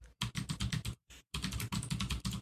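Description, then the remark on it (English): Rapid, clattering keystrokes on a loud computer keyboard as someone types a Google search, steady, with a brief pause in the middle before the fast typing resumes. “I wasn't gonna Google anything because my keyboard's so loud, but you made me.”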